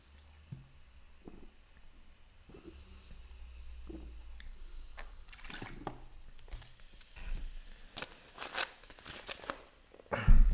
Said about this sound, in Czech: Čekání uh, zkrátím tím, že se napiju. Mám opravdu žízeň jako velbloud vozící otroky napříč Saharou.